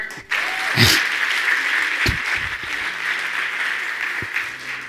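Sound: audience clapping hands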